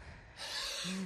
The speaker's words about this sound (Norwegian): Det er bare å ta hodet vekk, skal, jeg, skal jeg puste? Så du puster sånn her